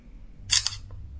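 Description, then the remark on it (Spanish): A smartphone camera shutter fires once as a photo is taken by double-tapping the shutter button, a crisp synthetic click-snap with a quick double edge, heard alone over a faint low hum. “encima justo hay un botón que dice obturador y no se puede etiquetar. Le damos dos golpes y hace la foto.”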